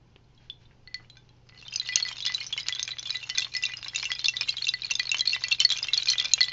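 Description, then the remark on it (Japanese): A homemade wooden wind chime of many hanging pieces cut from broken drumsticks clatters continuously with dense, hollow knocking, starting after a few faint taps and building into a steady rattle. “これ何かというと、折れたドラムスティックを切ったものをぶら下げています。”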